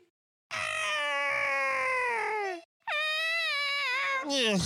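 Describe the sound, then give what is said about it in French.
Voices imitate koala, otter and seal cries in quick succession: a long, loud, wavering wail that slides downward, a brief pause, a second high cry falling in pitch, then a short rough, breathy burst. “Je propose qu'on termine sur un petit cri consécutif de koala, loutre et phoque, et ce sera la fin.”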